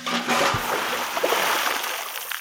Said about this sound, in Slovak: Namiesto horúčavy ho zaleje chladná voda.